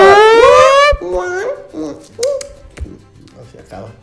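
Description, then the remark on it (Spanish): A voice imitates a car alarm that has about 20 different sounds: one loud, rising wail lasting about a second, followed by several shorter, quieter warbling vocal tones in a quick, uneven series. “Tiene como 20 sonidos la alarma.”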